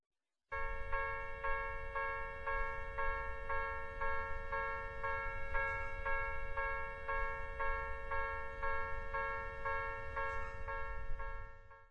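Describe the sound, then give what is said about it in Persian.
A railway level crossing warning bell clangs in a steady, rapid repeating rhythm, loud and continuous for the whole stretch, with a low rumble of background noise beneath and no voices. “این صدای مربوط به هشدار رسیدن به تقاطع قطار هستش در زبان ژاپنی اون رو اینطور بیان میکنیم”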